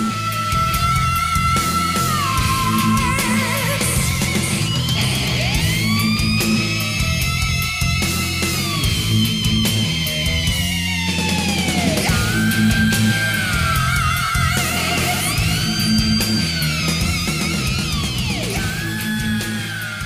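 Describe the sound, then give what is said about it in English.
Loud heavy metal with a high, piercing vocal scream trading off against wailing lead guitar bends, each rising and falling in turn over a constant pounding drum and bass backing. “he almost does like a scream off with the guitar.”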